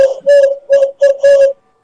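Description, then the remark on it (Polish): Someone whistles an imitation of an owl call: about five steady, mid-pitched hoot-like notes of uneven length in quick succession, fairly loud, with no talking. “Nie brzmi jak sowy, które mamy w Bretonii.”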